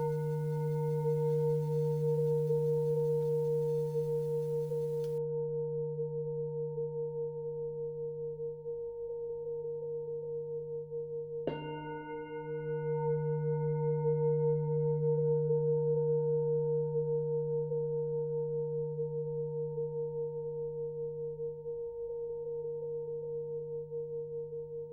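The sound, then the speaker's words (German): A peace singing bowl hums with a steady, layered tone that swells and wavers slowly; a second strike near the middle adds a bright shimmer of higher overtones before the sustained drone continues. “Es ist eine ganz besondere Klangschale. Es ist eine Friedensschale.”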